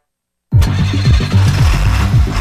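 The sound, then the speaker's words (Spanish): A Dongfeng truck engine starts abruptly after a brief silence, then settles into a loud, low rumbling idle with a steady pulsing throb. “negocio arranca con tu nuevo camión Dongfeng y Grupo Mavesa.”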